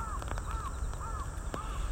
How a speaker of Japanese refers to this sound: さあカラスも鳴いたところで